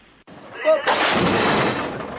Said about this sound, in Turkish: İşte kurşun ve patlama sesleri arasında gerçekleşen o yaralı transferi ve sınır kapısından izlenimlerimiz sıradaki haberimizde.